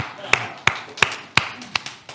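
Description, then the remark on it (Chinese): Hands clap in a steady, even rhythm as applause given to God, six sharp, crisp claps about a third of a second apart, fairly loud against a quiet background, with no talking. “哈利路亚，给神一个掌声。”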